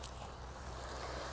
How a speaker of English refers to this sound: And you can probably hear that the sound quality is different today. You can probably hear the birds chirping in the background and the waves slowly rolling in the shore